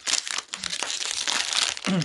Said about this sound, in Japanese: あ、シフォンケーキだからね、この袋を開けたら、中にこのね、紙のパックで、ちゃんと包まれてますね。